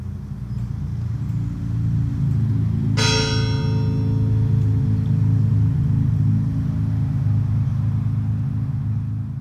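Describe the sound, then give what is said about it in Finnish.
A single deep strike of a church bell tolling a funeral death knell, its ringing overtones fading slowly, rises over a steady low rumble of traffic or engine noise; no one speaks. “Hitaat lyönnit kertovat tasavuosikymmenet ja nopeat lyönnit vuodet sen päälle. Ikä 32 vuotta. Kuolinsyytä kellot eivät kerro.”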